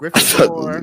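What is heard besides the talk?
sneeze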